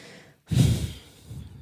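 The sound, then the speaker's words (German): A single sharp, annoyed huff of air snorted out through the nose, fairly loud, trailing off into quieter breathing after a brief moment of silence. “Hat man gemerkt, dass das so ein bisschen so ein genervtes Schnaufen war?”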